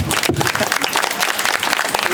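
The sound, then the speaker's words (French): Audience applause for the participants and finalists of a contest: a dense, steady wash of many hands clapping at once, bright and crackly, holding at a fairly loud level without pause. “Euh, on peut déjà les applaudir.”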